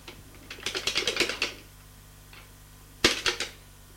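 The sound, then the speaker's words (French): A woman sitting at her desk types on a computer keyboard: a quick run of crisp keyboard taps for about a second, a pause, then a second short burst of keystrokes. Fairly loud, with no voices. “S'assoit à son bureau et met l'ordinateur en marche.”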